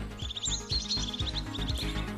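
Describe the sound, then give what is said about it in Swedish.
Small birds chirp and twitter in late February in quick, repeated bursts throughout, fairly clear, over a steady low rhythmic rumble in the background. “Så här i slutet av februari så är det ju alldeles ljuvligt hur man kan höra fåglarna kvittra.”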